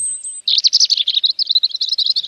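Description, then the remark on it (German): A European robin sings: a thin high whistle, then a rapid, warbling run of twittering notes that wavers continuously for a couple of seconds with no voices. “Vogel der Woche - das Rotkehlchen”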